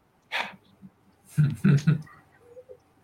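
Muffled huffing breaths blown through a face mask onto sunglasses to fog and clean them: a short airy puff, then a few louder, throaty 'haah' exhalations in quick succession.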